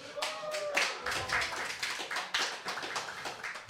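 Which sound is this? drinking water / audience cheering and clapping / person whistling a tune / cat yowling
audience cheering and clapping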